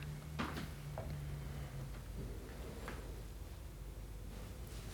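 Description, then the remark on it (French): A door is opened quietly, with a few soft clicks and knocks from the latch and frame over a low, steady background hum. No one speaks. “J'ouvre la porte et je sais qu'il y a quelqu'un.”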